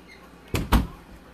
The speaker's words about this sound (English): sorry i had to close the bathroom though